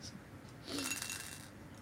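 Three dice clatter and rattle against the inside of a teacup-like ceramic cup in a quick burst lasting under a second, with a faint ringing clink, fairly quiet against a soft background hiss.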